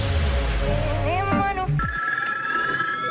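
A busy burst of sliding electronic tones gives way to a steady, bright synthetic phone ringtone that holds one clear pitch, fairly loud, with no voices.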